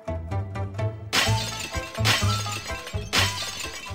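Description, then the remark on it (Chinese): A vat being smashed on the village-entrance stage in a performance of the play 'Sima Lei Smashes the Vat': three loud, harsh crashing bursts at a steady pace, with heavy low thuds between them, after a quick run of lighter taps at the start. No one speaks. “很长一段时间，村口的台子上就只有这一种声音：哐哐哐。”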